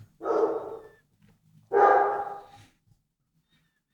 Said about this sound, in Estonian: sul on mingi päris suur koer seal taga.